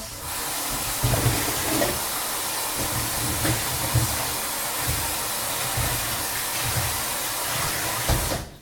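Steady, full-bodied rush of water pouring from a tap for several seconds, with soft bumps and shifting as mushrooms are rinsed under the stream, fairly loud, no talking.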